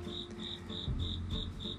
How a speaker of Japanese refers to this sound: で、というか、今、焙煎所にいるんですけども、明らかに、あのー、航路にいますよね。床下にコオロギがいて泣いてるんですよね。